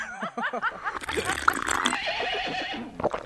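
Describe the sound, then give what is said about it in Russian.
A horse whinnies loudly, a shrill, wavering neigh that rises and falls over a few seconds before trailing off into snorting breath. “Лошади были давно готовы, а мне все не хотелось расстаться с смотрителем и его дочкой.”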